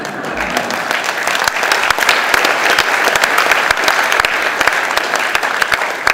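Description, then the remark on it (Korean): Sustained audience applause, a dense, steady wash of many hands clapping at even loudness for several seconds, with no voices standing out. “이제 박수 치는 것도 제가 따로 조용히 대접을 안할 겁니다.”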